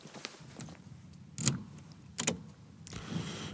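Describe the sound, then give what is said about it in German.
Keys jangle and click in two sharp metallic bursts, like a key taken from a fake stone being worked into the lock of a house door, over a low background rumble with no talking. “Ah, schau mal hier, der Schlüssel in diesem unechten Stein.”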